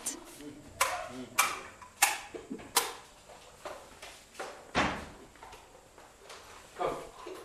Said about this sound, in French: La porte s'ouvre avec difficulté sur un bureau qui semble encore habité.